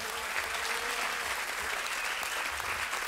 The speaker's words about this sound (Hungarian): Adjunk egy noi tapsot Jézus Krisztusnak.